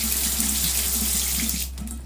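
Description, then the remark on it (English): A water fountain runs: a steady stream of water splashes continuously into a basin, fairly loud, with a low hum underneath; the flow cuts off near the end. “This is a water fountain that you know.”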